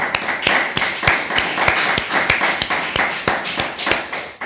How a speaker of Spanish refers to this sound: Amén, amén, amén. Vamos a darle un fuerte aplauso al Padre.